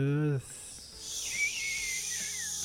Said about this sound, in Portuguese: vírgula sonora que o Lucas adora colocar